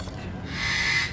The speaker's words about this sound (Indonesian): buset nih suara bebek itu suara soang